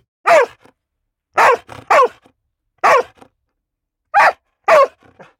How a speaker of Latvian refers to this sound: Kas tur skanēja? Sunis. Suns, jā, šo skaņu jūs man liekas nesajaukt ne ar ko citu, vai ne?